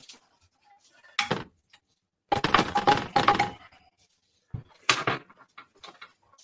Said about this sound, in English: I, I actually mixed the red lentil and the chickpea, so you have some nice colors there. Obviously, drained it, and uh, I'm just going to pour this mixture right on top of the pasta.